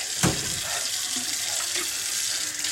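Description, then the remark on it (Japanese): A faucet runs steadily into a sink with a broad hissing splash and a brief knock near the start; faint clinks and scrapes like a toothbrush hitting the basin come through as a man brushes his teeth with his wife's toothbrush. “嫁はんの歯ブラシで歯磨いてありますわ。”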